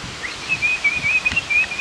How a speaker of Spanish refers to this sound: ¿Cuál es que es este pajarito? Es un canario, weón.